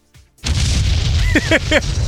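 After a brief quiet moment, a loud explosion bursts in with a deep, sustained rumble that roars on to the end, with a few short rising whistle-like tones cutting through the blast.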